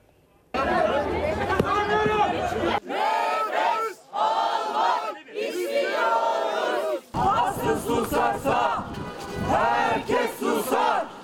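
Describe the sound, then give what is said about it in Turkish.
A crowd of journalists in Turkey chants a protest slogan in unison in front of a governor's office, protesting police violence against journalists. Loud, rhythmic shouted phrases are repeated in bursts with brief pauses between them, voices massed together over about eleven seconds. “Ankara, İstanbul, İzmir hep bir ağızdan tek bir sloganla sokaktaydı gazeteciler.”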